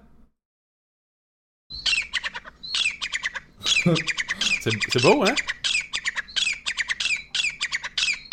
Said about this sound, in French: premier truc, le son de la perdrix